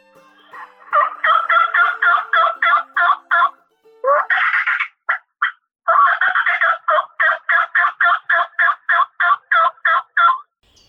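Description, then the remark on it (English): A male wild turkey (tom) gobbles in rapid rattling bursts, two long runs of pulsed notes separated by a brief pause with a few shorter calls, loud with no talking. “I think we've got a Tom working”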